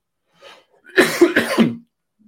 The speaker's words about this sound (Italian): scusatemi, un colpo di tosse.